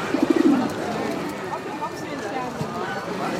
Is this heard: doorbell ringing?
no